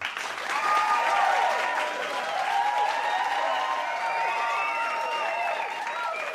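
Studio audience applause and cheering on the Energy Verho-show on a Tuesday: dense, steady clapping mixed with whoops and excited shouts, holding at a loud, even level for about six seconds with no speech over it.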